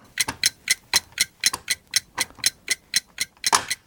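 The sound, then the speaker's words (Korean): A 10-second countdown timer ticks steadily during a challenge on the radio show Lee Gi-kwang's Gayo Gwangjang to safely press five teeth of a toy crocodile, about four sharp, bright clicks per second in an even rhythm, with a slightly louder tick near the end and no voices. “타이머.”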